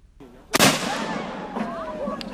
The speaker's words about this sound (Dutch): Want daar wordt namelijk dagelijks om 12 uur een kanon naar buiten geduwd en afgeschoten. Mogen we echt niet missen.